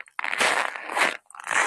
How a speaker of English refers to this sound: hey, so this is the sound of sn- the snow, just the freaking snow. You can hear this crunching.